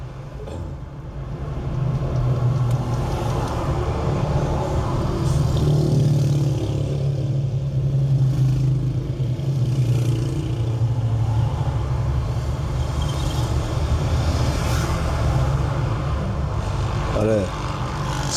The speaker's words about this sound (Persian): که خیابونای کف تهران رو دارید میشنوید